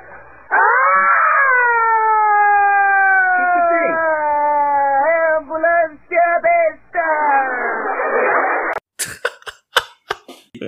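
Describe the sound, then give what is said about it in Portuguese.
A single voice imitates an ambulance siren passing by, like the character Kiko in Chaves, a sustained wailing tone whose pitch drops and wavers as if moving away, showing the Doppler effect, followed by a few short breathy bursts like coughs or laughter. “Agora, se ela estiver passando por você, não faz um som diferente quando ela está se aproximando e quando ela está se afastando?”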